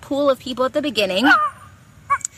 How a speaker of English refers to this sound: Sorry about my dog barking.